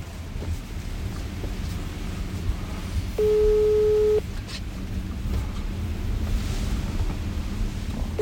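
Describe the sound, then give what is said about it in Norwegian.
A phone's ringing tone from an outgoing call sounds as a single steady electronic beep lasting about a second, then a pause before the next tone begins, over constant low wind-like rumble. No one speaks. “Skal vi i hvert fall ringe da, høre hva i all verden er som skjer.”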